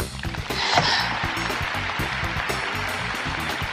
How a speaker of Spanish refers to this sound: Buenas tardes, buenos días, buenas noches, gente bonita que escucha este divertidísimo programa del Itacate. Aplausos.